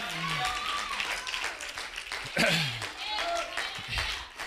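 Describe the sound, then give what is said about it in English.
An audience claps for the Lord in a dense, steady burst of applause lasting several seconds, with voices calling out and murmuring over the clapping. “Give the Lord a little hand clap.”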